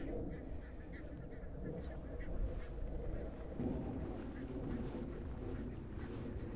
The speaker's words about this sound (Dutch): En eh, qua geluid, qua achtergrondgeluid, die clash van de gakkende ganzen en de vliegtuigen, die kan ik helaas niet wegpoetsen, die laatste. Dat is ook deel van de werkelijkheid.